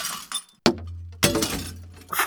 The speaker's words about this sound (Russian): А утром, когда мы пили кофе, я вдруг услышал дребезги стекла